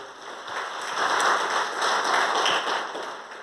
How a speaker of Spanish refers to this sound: Un aplauso de bienvenida aquí para mi hermano y amigo.